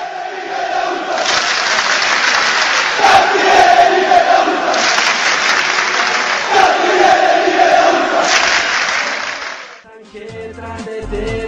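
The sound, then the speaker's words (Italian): A large crowd of Lazio football fans chants in unison, a loud, sustained roar of voices with rhythmic melodic swells, before it cuts off and a short musical jingle begins at the end. “Bene, ringraziamo Daniela Santanchè e chiudiamo con i cori dei tifosi laziali ed un meraviglioso stacchetto.”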